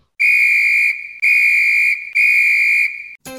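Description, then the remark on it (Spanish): A person whistles three long, steady, piercing notes of about the same pitch, each separated by a brief pause, loud with no talking. “Despídete y silva.”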